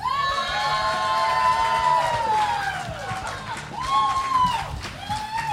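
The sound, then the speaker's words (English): A live audience at G-Fest 23, a Godzilla convention, in August 2016, cheers loudly and continuously, with overlapping shouts and high whooping voices rising and falling throughout, dense with many voices. “And there's another really good reason I need you guys to be loud, and that's because Stan Hyde's Kaiju Confessions is happening right next door.”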